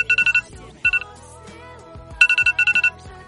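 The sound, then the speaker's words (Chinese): An iPhone alarm ringtone going off to wake someone in the morning: clusters of rapid, bright electronic beeps, each burst of several quick pulses followed by a short pause, repeating insistently at a fairly loud level. “至于苹果手机，嗯，他早上醒来的声音是这样的。”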